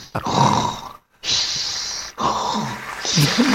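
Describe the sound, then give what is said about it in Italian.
A voice imitates snoring with three loud, rasping, snorting breaths in quick succession, separated by brief pauses, with a gurgling rattle in the last one. “Sta ronfando?”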